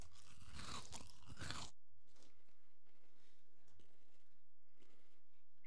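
A Whatchamacallit candy bar is bitten with a loud, crackly crunch lasting over a second, followed by softer, irregular chewing sounds with no talking.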